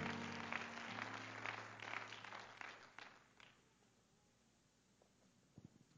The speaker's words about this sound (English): Thank you so much for standing. Clap your hands to the Lord as you're seated tonight.